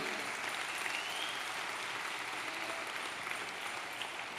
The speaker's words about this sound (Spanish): Se está dando un aplauso, no te está saliendo.